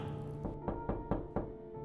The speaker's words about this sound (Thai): เป็นจังหวะเดียวกันกับที่เพื่อนเตยพากันมาเคาะเรียกให้เปิดประตูให้